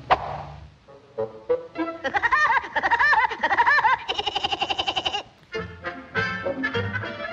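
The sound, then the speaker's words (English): Woody Woodpecker's signature cartoon laugh: a loud, high, staccato cackle of rapid rising and falling pulses, repeated in bursts for several seconds with no talking. “here's a reminder of what Woody Woodpecker sounds like.”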